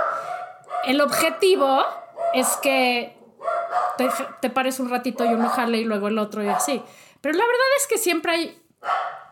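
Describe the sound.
The speaker's own dogs bark intermittently in the background while a person keeps talking steadily over them; the barks sit beneath the voice and are moderately loud.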